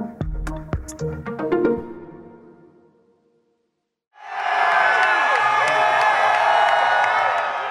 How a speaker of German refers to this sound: Das, was Sie da hören, das sind jubelnde Wähler und Wählerinnen im US-Bundesstaat Pennsylvania. Und zwar die, die bei den Midterms, also den Zwischenwahlen in den USA, für den Senatskandidaten der Demokraten gestimmt haben, John Fetterman